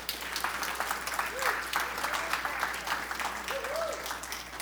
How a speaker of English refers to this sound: Isn't that cool? How about an applause for that?